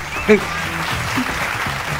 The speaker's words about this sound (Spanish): La verdad que un aplauso a todos los que hacen La Zona Invisible.